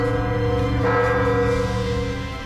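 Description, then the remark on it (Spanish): The bells of a rehabilitated cathedral in Mexico ring out loudly with long, overlapping tones that sustain and blend into a rich, resonant wash, with no voices present. “Y escuchen las campanadas de la catedral que también se rehabilitó por el bien de todos, primero los pobres.”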